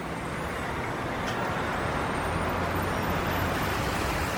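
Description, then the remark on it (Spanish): Dense, continuous city traffic roars steadily in downtown New York City's business district, USA, early morning on 11 September 2001: a broad wash of engines and tires with low rumbling from buses or trucks, echoing between buildings and skyscrapers, with no voices. “El sonido del tráfico desenfrenado a esas horas en pleno centro y zona de negocios resuena entre los edificios y rascacielos de la ciudad.”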